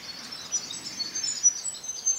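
Birds chirp and call high in the treetops of a highlands forest in the late afternoon, a soft continuous chorus of small tweets over quiet forest ambience, with no one talking.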